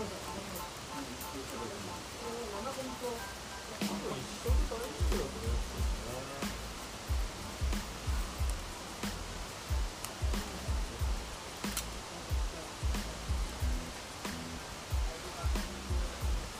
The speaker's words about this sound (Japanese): これもう川見えないですね流れの音だけがいや本当、うん、この音入ってんのかな川の音入ってんのかな聞こえるんですかあキャッチできるんだその川のどうどうですかね、うん、でも多分聞こえてる夜も。